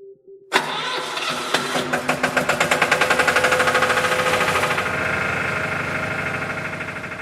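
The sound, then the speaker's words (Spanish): An electric generator engine, housed in a humble shack in the Cañada and switched on each night since the October 2020 blackout, cranks to life with rapid chugging pulses that speed up, then settles into a loud, steady running drone, with no voices. “este es el sonido del generador eléctrico que cada noche encendía Jesús”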